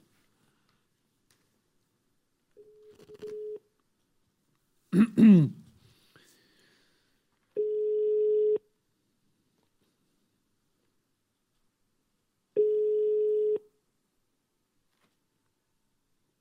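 A telephone ringing tone on a call: three steady, mid-pitched one-second beeps separated by long silent gaps. Someone clears their throat once between the first and second rings.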